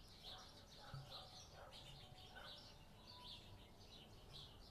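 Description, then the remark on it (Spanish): Small birds chirp repeatedly in the background, a steady stream of high, quick tweets over a soft outdoor ambience, fairly faint. “Miren qué bonito fondo, no sé si se escuchan los pajaritos.”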